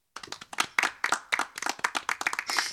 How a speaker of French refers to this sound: On l'applaudit.